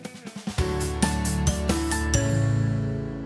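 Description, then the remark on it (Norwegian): A telephone in the studio of Radio Buvik rings with a melodic tune: a quick run of bright, chiming notes that sustain and overlap, fairly loud, with no voices. The call is from Foreign Minister Børge Brende. “Må ringe faktisk telefonen i studio her.”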